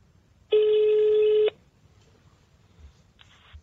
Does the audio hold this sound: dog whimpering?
no